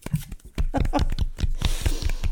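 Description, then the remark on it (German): Soft hand clapping into a microphone in a quick, steady rhythm, about a dozen light claps over a couple of seconds with no one speaking. “Ich, ich klatsche leise ins Mikrofon.”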